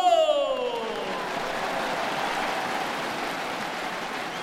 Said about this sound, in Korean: 박수.